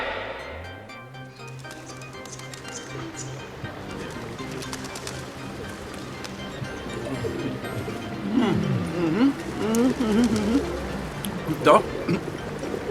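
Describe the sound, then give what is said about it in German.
Pigeons coo in low, warbling bursts, clustering in the second half over a steady outdoor background hum with faint murmuring voices. “weg mit dir, du, weg, du eklige Taube, das, das ist meine Pizza.”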